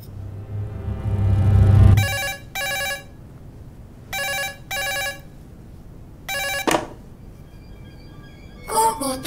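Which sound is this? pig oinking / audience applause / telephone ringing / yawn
telephone ringing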